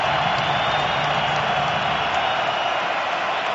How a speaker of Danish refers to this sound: Ja, altså, der er kæmpe jubel her i øh, parken, og øh, han er ikke engang kommet på banen endnu.